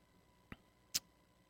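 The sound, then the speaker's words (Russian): An Apple Watch message notification gives two quick ticks about half a second apart. The second is sharper and brighter than the first, with near silence around them and no talking. “Да, Apple Watch. Вот мне прислали сообщение, и вот картинка.”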